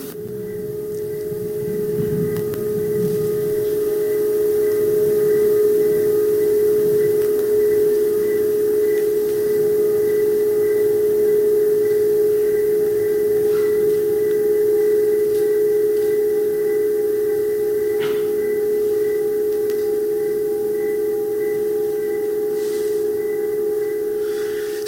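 A bare, uninsulated telephone wire vibrating against a wooden telephone pole gives off a steady, droning hum like electrical static, with one strong mid-pitched tone, fainter overtones and a hissing, crackly texture that continues unchanged throughout, with no voices.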